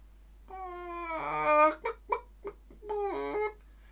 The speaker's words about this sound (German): Das ist nicht die Ente, nicht der Schwan, das Huhn. Es ist das Huhn. Das ist das Huhn.